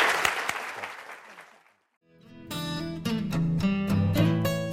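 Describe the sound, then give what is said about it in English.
Audience applause thanking the guest speaker at a Stanford Technology Ventures Program Entrepreneurial Thought Leader Series lecture, a dense wash of clapping that fades out by about two seconds, followed by a rising burst of bright music taking over. “I hope you will join me in thanking”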